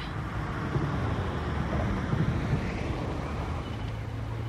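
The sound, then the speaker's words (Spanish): A car pulling up and stopping in front of a dirty shack, heard as a low, steady engine rumble with a broad noisy wash over it, and no voices. “El auto se detuvo frente a una casucha sucia y complicada.”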